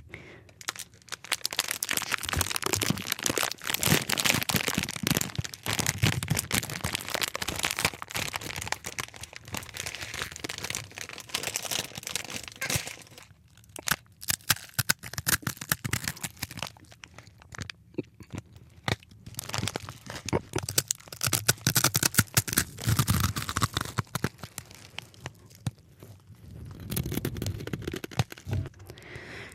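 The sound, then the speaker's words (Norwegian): The packaging of Mr. Lee chicken instant noodles crinkles and tears in a long, dense run of sharp, bright crackles and rips, loud throughout, with a couple of brief lulls between bursts. “And here we have Mr. Lee uh, in noodle soup.”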